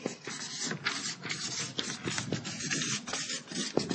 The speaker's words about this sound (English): pretty good that I can write straight across like that, isn't it? It took me years to learn that.